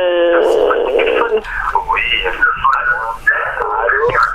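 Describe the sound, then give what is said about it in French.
A caller's radio plays continuously in the background through a narrow, tinny telephone line, its muffled voices and tones filling the whole stretch at a fairly loud, steady level. “Par contre, il faudrait enlever le, le, son euh, derrière. Euh, le baisser le son de, la radio, s'il vous plaît.”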